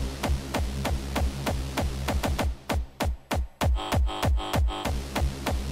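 A steady, driving electronic kick drum with bass opens a music track, pounding at a quick regular pace, each hit sliding down in pitch, layered over a sustained buzzing bass line; loud with no voices.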